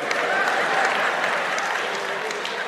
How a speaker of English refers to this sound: Not a lot of clapping there, right?